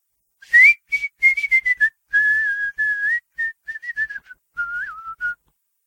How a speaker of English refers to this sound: whistled a Calliope tune.